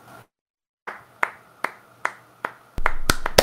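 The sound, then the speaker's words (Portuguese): A slow, steady round of hand clapping: five sharp, evenly spaced claps, then a louder, quicker flurry of claps at the end. No one speaks. “Eu só desmontei para aplaudir, tá?”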